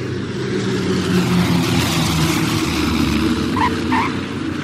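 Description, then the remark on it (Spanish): An airplane landing in Natal: a loud, steady engine roar with deep rumbling and broad hiss throughout, and a couple of brief higher chirps near the end. No one speaks. “Finalmente aterrizan en Natal.”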